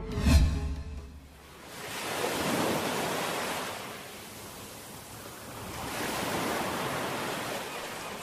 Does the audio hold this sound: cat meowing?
no